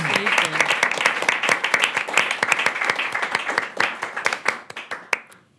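A crowd applauds with dense, steady clapping that thins into scattered individual claps before fading out near the end.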